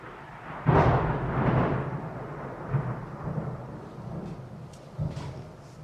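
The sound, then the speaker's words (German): A deep crack of thunder breaks out about a second in and rolls on as a long, low rumble, with a few softer grumbles trailing off afterward; no voices. “Ja, gehört man schon gut das Tunnel. könnte man so als Intro nehmen. Schabum!”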